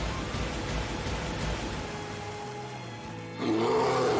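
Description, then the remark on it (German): A deep, rumbling roar of mutated bears over a steady noisy background, swelling louder near the end with a rough growling rise; no one speaks. “Genau, und jetzt sind Bären und Tiere mutiert.”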